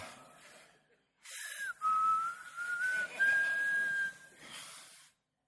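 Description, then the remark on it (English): Someone whistles a short tune, the pitch climbing in small, gradual steps over a few seconds. The breathy whistling is backed by a soft, airy hiss. “So God showed up and now he's whistling.”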